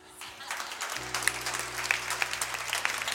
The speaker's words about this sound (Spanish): Hoy estudiamos una parte que a mí me costó mucho trabajo. Creo que me merezco un aplauso, ¿no?